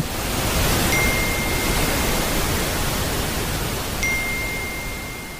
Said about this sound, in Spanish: Sí, el que usted escucha al terminar la transmisión televisiva y que solo existe en transistores, materiales magnéticos o en grabaciones y algunos otros artefactos y que tal vez no sabríamos que existía hasta que se inventó la televisión.